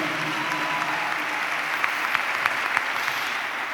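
An audience applauds the Lord Jesus Christ at the preacher's call, a dense wash of many hands clapping at once with a few sharper claps standing out, sustained and fairly loud throughout.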